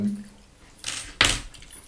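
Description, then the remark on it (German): Hanging keys jingle in two short bursts, a softer metallic rustle followed by a sharper, brighter jangle, with no one speaking. “auch habe ich den Schlüssel hier hängen, Junge.”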